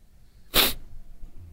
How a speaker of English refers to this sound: Yep, I've got the uh, the snotty sniffles. Wow, the snotty sniff there at the end.